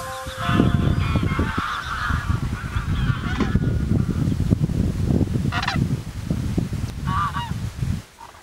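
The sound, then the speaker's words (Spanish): A flock of wintering geese honks steadily across the Salina Grande lagoon, one of the Villafáfila lagoons near Otero de Saregos, Zamora, Spain, heard from its bird observatory; many overlapping calls with a few louder honks standing out over a constant wash of cackling. “Aquí está el observatorio de la laguna Salina Grande, uno de los puntos desde los que se pueden observar a las aves, que en esta época del año permanecen en las lagunas de Villafáfila.”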